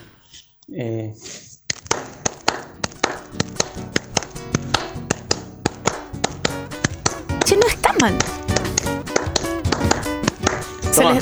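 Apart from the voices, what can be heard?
applause clapping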